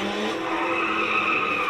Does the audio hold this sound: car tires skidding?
yes